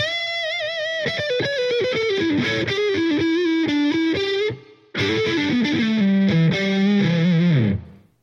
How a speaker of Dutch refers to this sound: ja, maar dan mis ik mijn jingletje. Dus even een jingletje en dan deel 2 van het verhaal.